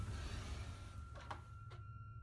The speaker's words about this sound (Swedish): Han skyndar tyst mot ytterdörren och stannar när han lagt sin hand på handtaget. Han trycker försiktigt ner det, men kan inte öppna. Det är låst. Mödosamt vrider han sakta om låset tills ett litet klick hörs och dörren går upp.